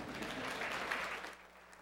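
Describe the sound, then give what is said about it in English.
A church audience at Carpenter's Way applauds after a closing prayer celebrating a family's decision to follow Jesus, with steady, dense clapping that holds for over a second, then thins and fades out near the end. “Yeah, you can clap. It's okay.”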